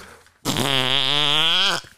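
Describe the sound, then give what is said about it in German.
A person blows one loud, sustained raspberry with the lips, a buzzy, wet, fart-like sputter lasting over a second, with no talking around it. “Das kommt von einer Redewendung, äh, wo lautet «to blow a raspberry» was so viel bedeutet wie ein Furzgeräusch mit dem Mu machen, also irgendwie so.”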